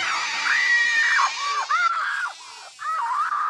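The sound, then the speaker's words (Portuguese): A woman screams and cries in long, high-pitched wavering wails, loud, with brief breaks between anguished sobbing cries and no other speech; a female character in an Indiana Jones film. “Aí ela passa o filme inteiro gritando e chorando.”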